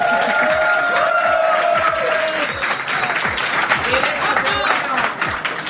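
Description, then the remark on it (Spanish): A live audience at an event in Zaragoza applauds steadily for several seconds, a dense wash of clapping with some cheering and whistles mixed in, loud throughout with voices scattered across the crowd. “ahora mismo en directo desde las décimas jornadas de podcasting que se están celebrando aquí en la bella ciudad de Zaragoza y estamos rodeados de gente, así que aplaudir, casi mi madre luego puede presumir.”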